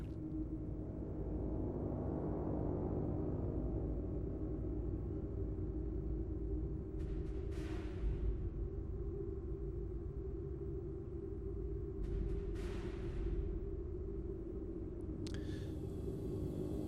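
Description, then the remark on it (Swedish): A steady, low rumbling drone fills the background of a piece of music, with airy whooshing gusts swelling and fading twice, like wind blowing through a dark, empty soundscape. No voices. “Här undrar jag, det här vindljudet som man hör i bakgrunden det är någonting de gör instrumentalt.”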